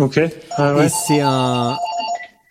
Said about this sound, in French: T'as un message. non, non, c'est vrai, c'est le téléphone du boulot.